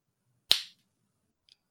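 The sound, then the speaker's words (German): A single sharp slap on a hand, crisp and loud with a quick fading smack, then a tiny faint tap a second later in otherwise quiet surroundings. “Aber ich mache nur auf die Hand.”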